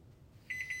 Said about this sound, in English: Okay, that's the timer to take them out.